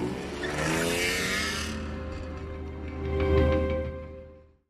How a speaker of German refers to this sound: Mike, der den ernsten Ton in Toms Stimme erkannte, beeilte sich, lief zum Auto und raste los.